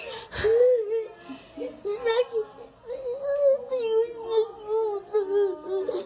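A young child cries and whimpers continuously, with a wavering, high-pitched wail broken by short sobbing breaths, close by and fairly loud, with no other sounds around it.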